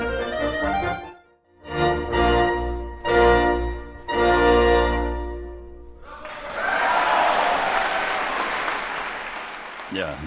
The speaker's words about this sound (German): Da gab es Beifall für die Mitglieder des Santa Fe Chamber Orchestras, des Kammermusikensembles des Santa Fe Kammermusikfestivals unter der Leitung in diesem Falle von Alan Gilbert.